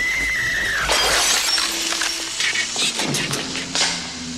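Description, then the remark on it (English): A loud crash as an old-school 1997 television set smashes off Dan Aykroyd's head in a movie scene, glass shattering in a burst of bright crackling debris that tinkles and scatters for several seconds, with a brief high whine fading at the start. “Your big breaking TV.”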